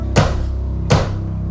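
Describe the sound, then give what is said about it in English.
Two dull, heavy knocks land about three quarters of a second apart, each a sharp thud that fades quickly, over a steady low hum with no talking. “Someone at the door? Someone knocking?”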